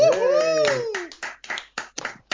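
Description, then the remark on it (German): Audience applause welcoming Sönke Möhring, with a rising and falling whoop or cheer at the start, then a run of loud, sharp claps in an uneven rhythm. “Mit Applaus für Sönke Möhring!”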